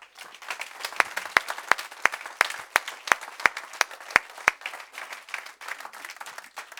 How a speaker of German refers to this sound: Und Gebt mir bitte einen gescheiten Applaus jetzt. Ich bitte euch darum.